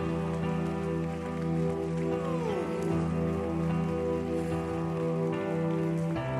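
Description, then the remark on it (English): A church audience claps hands in praise of the Lord: a dense, steady wash of many hands clapping for several seconds over sustained musical notes, with no voices standing out. “Can we give the Lord a huge hand clap of praise today?”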